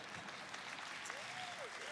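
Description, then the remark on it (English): An audience applauds for Pahrump with dense, steady clapping that fills the whole two seconds at an even level, while a brief rising and falling tone rides over it toward the end. “That's awesome, little Pahrump a applause. Doesn't happen a lot, but a little bit.”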